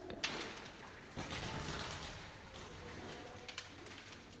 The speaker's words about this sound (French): Il y a une bataille de pigeons dans la cour. Genre, ils sont dans une gouttière en haut de l'immeuble. Et ils sont, euh, ils, sont, euh, ils sont trois. Quatre. 4.